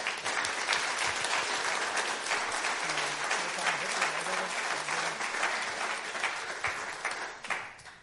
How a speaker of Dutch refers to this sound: maar um, ja, zullen we nog een hartelijk applaus eh, geven?